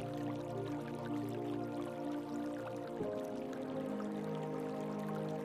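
A broad river in Paris babbles gently and steadily on an early summer morning, a soft continuous wash of flowing water that holds an even level throughout with no voices.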